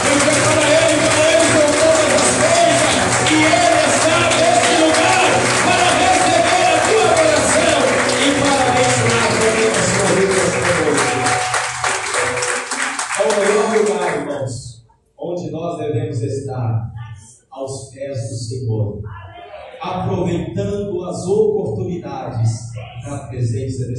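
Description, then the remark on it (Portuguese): An audience at a Christian service claps loudly and steadily for Jesus for about fourteen seconds in a dense, unbroken wash, then the applause fades and a man begins speaking. “E você que está alegre, feliz com Jesus, dê uma salva de palmas bem forte.”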